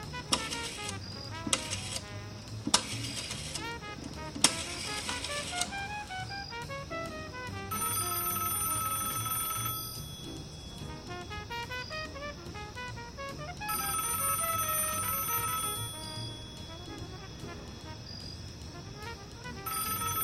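A telephone rings on an outgoing call, two long bursts of ringback tone separated by a pause, preceded by a few sharp clicks and beeps of the line connecting; no one speaks.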